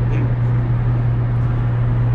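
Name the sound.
car interior road noise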